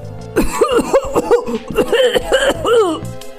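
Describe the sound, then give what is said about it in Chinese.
A fit of harsh, throaty coughing from a field mouse character: around seven strained, voiced coughs in quick succession, loud and rasping, with short gasps between them and no speech. “这时，田鼠克拉拉突然一阵咳嗽，”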